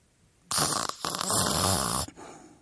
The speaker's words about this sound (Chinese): 谁知鸭子竟打起了呼噜，它已经酣然入睡。